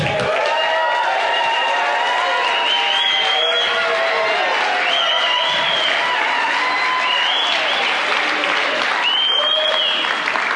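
A large crowd applauds steadily and loudly while voices cheer and whoop over the clapping, sustained for several seconds with rising shouts scattered throughout.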